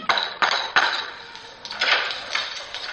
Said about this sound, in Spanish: Sí. Vamos a llamar a la puerta.